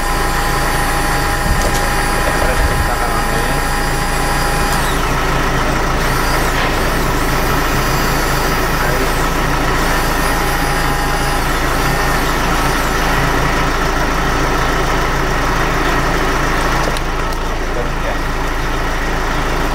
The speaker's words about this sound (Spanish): cuando le doy a la a la batidora